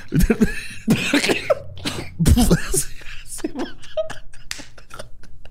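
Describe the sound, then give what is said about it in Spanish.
Loud coughing in a series of harsh, dry bursts, bunched into quick fits with short gasps and throaty vocal noises between them, fading into lighter sputters, from someone eating pinole, a corn powder made in the sierra of Chihuahua. “Tosiendo, güey, cada vez que come.”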